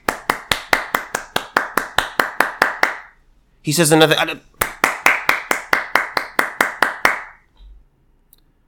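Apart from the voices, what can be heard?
clapping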